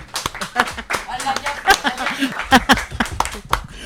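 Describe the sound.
A small group applauds with a steady patter of overlapping claps for a few seconds, while voices talk and a little laughter comes through over the clapping.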